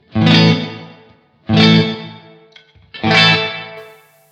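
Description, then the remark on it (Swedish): Three strummed electric guitar chords played through a reverb pedal on its small hall setting, at about 2.5 with the mix raised. The chords are evenly spaced about a second and a half apart, each ringing out and fading; no voices. “och sen så går vi över på nästa som är då medium eller small hål.”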